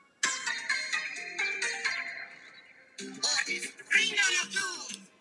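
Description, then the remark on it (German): A bright, upbeat mobile game startup jingle plays loud as the game is launched, two quick melodic phrases separated by a brief pause, with no one talking over it. “ich starte mal in Brawl Stars rein”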